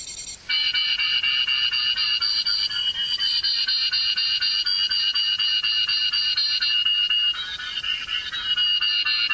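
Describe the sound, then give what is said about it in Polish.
A steady, continuous electronic tone made of several high stacked pitches from a sonar mobility aid set to its 5-metre range, signaling the door opposite, holding loud with slight wavering shifts and no talking. “Teraz w zakresie 5-metrowym powinienem złapać przeciwległe drzwi.”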